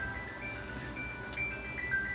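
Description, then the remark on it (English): A phone rings with a steady electronic, melodic tone, a few high pitched notes sustained over a low background hum, with no one talking. “Oh, the phone is ringing already.”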